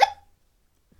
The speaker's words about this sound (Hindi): हिचकी आ गई तुम्हें